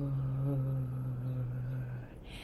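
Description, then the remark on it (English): A person holds a single low, buzzy throat-singing drone for about two seconds, steady, with bright overtones ringing above it before it cuts off. “And then after that, I tried this throat singing voice, the other voice, and I um, made the sound like this.”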